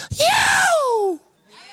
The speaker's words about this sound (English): It actually means to jump up in the air while you're in the air, turn 360 degrees around, land on your feet, and shout with a shrill scream.